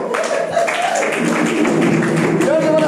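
An audience claps steadily for a few seconds, a dense, even patter of many hands, with voices rising over the applause.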